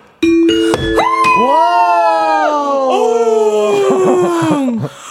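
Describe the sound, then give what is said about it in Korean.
A person wearing a tiger costume imitates a tiger's roar with one long, loud, drawn-out vocal cry that wavers and swells before trailing off, with no talking. “어, 지금 호랑이 탈 쓴 거 아니야? 호랑이 탈 벗고 얘기해 주세요.”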